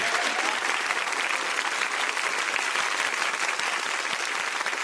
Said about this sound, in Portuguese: Além de Fernanda Montenegro, nós temos a nossa Jam Session. Pode aplaudir …, ….